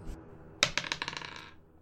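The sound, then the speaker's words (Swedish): Dice rolled onto a table for a sneaking skill check, coming up 12: a sharp first clack, then a rapid run of bright, rattling bounces that thin out and die away within about a second, with no voices. “Smyga var ju en sån färdighet jag faktiskt hade lite grann Jag slog en 12 och jag har 13.”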